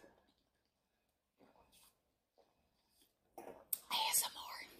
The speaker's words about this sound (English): Again, y'all know this is uncut, so I drink my water and I'm in my face.